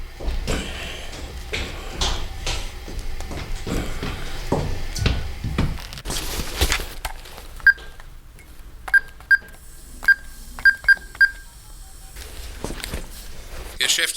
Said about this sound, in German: zog sein Handy hervor und wählte die Nummer der Kaufhausgeschäftsleitung.